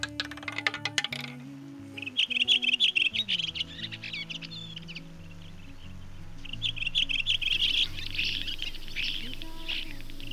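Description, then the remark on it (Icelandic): Small birds in Iceland, singing in the morning as summer begins, chirp and trill in rapid, high-pitched bursts, loudest early and again near the end, over a low, steady musical tone with no talking. “Næsta upptakast nýr ekki að fólki heldur smáu vengiðu verunum sem að veki okkur landsmenn orðlamorguns þessa dagana.”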